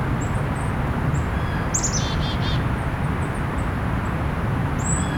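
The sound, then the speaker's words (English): A golden-crowned kinglet gives a quick series of very high, thin, ringing notes that drop slightly in pitch, with a few other faint high chirps over a steady low rumble. “And there is a golden crown kinglet vocalization. That ring ring.”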